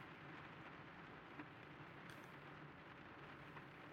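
Steady rain drums on a roof, a dense, continuous hiss of droplets with a few slightly louder taps, fairly quiet and even throughout, with no voices.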